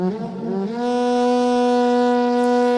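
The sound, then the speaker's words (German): A loud, sustained trumpet blast rising from a wavering start into one long steady note, rich and blaring, with no voices present, sounding at daybreak amid thunder and lightning over Mount Sinai, which is covered by a dense cloud. “Eine dichte Wolke bedeckte den Berg und mächtiger Posaunenschall war zu hören.”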